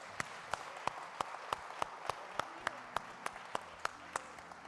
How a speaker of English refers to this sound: Let's give God a hand clap of praise for that.